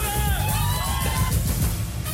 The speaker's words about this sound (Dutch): Hoor je dat? Ja. het bandje van het eh, gejuich hield eh, te snel op.